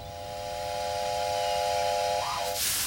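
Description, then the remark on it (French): A steady, shrill whistling tone holds and wavers briefly, then gives way to a sudden loud burst of hissing steam at the end, with no voices. “Encore moins d'un visage pour lui dire ce à quoi il devait ressembler alors que de la fumée commençait à sortir de ses naseaux”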